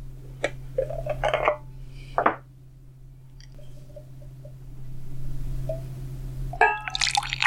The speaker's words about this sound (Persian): از بطری چای یک نفرم لیوانم را پر میکنم این یکی دیگر افکت صوتی نیست واقعا همینجا فکنون لیوانم را پر میکنم